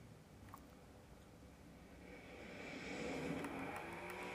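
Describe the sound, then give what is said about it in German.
The red car in a racing video game, heard from a first-person view: its engine hums steadily, then rises in pitch and loudness as it accelerates, a continuous drone with no voices. “Oh, das geht aber doch schnell ab.”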